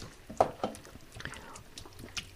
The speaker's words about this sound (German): So, und dann einfach auffüllen, so dass das wieder so cremig ist, also nach und nach ein bisschen Wasser cremig ist.